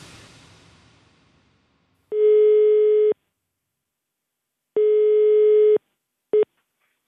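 A steady electronic telephone ringback tone sounds twice in one-second bursts, then briefly starts a third time and cuts off as the call connects; no one speaks, with faint noise fading at the start. The call is from the radio program Mellom himmel og jord to Ervin Kohn of Det mosaiske trossamfunn.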